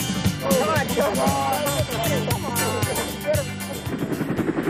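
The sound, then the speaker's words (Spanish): A helicopter's rotor thumps steadily and loudly throughout, a continuous rhythmic chop, with voices talking over the top of it; helicopters were used to deliver pieces of a huge birthday cake to the Marines in Vietnam. “Una gran labor que necesitó mucha harina y muchos helicópteros.”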